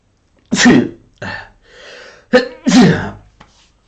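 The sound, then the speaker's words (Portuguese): Two loud sneezes burst out about two seconds apart, each sharp and explosive, with breathy inhales and a quick catch of breath between them. No talking. “Aí vem um espirro.”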